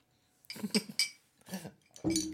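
Glasses clink together several times, bright ringing taps mixed with soft handling and shuffling noises, as someone toasts and takes a sip; no one speaks.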